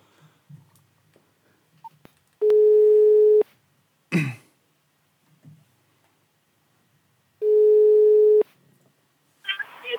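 A telephone ringback tone sounds twice while placing a call to someone at Hofor, each a steady one-second buzzing tone separated by a few seconds of near silence, with faint rustles and a brief throat-clearing noise between rings.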